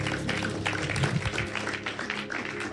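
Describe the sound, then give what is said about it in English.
An audience clapping their hands for God, a dense, steady wash of many overlapping claps that holds at a fairly loud level throughout without a clear beat. “Clap your hands for God.”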